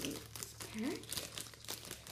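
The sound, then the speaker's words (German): Crackly crinkling of a foil trading card booster pack wrapper being torn open, a steady rustle lasting about two seconds, with an indistinct voice faintly underneath. “So, jetzt öffnet jeder ein Australglanz wieder.”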